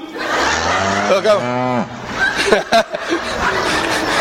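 A single drawn-out cow moo, loud, rising and then sliding down in pitch over about a second, followed by scattered bursts of noise and short vocal sounds.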